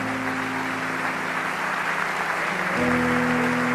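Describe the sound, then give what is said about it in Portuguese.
An audience applauds the King of Kings in a dense, steady wash of clapping, while a sustained low keyboard chord plays underneath and shifts to a new chord near the end. “Alguém pode dar um aplauso ao Rei dos Reis?”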